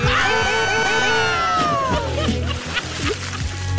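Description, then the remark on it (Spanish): A voice imitates the sound of chicken broth water boiling, starting with a high, wavering tone that slides downward, then breaking into choppy, gurgling bubble-like pulses. “… dice el paquito fiu fiu, pero con un sabor como cuando hierve, cuando hierve el agua del caldo de pollo”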